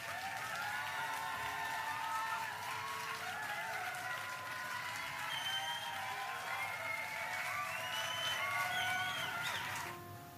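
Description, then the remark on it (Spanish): A crowd applauds steadily for about ten seconds, a dense wash of clapping with a few scattered whoops and cheers, holding an even level before cutting off abruptly at the end. “aplauso, aplauso.”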